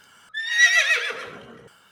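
A single horse whinny rings out clearly on its own, a shrill, quavering neigh lasting over a second that trails off lower and fades, with no talking.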